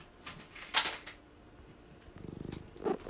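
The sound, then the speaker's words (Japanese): A cat named Chiichi purrs, a steady, rhythmic low rumble filling the second half, after a few brief rustling and handling sounds at the start as it is picked up. “ちいちが来ましたちいちがゴロゴロ言ってます”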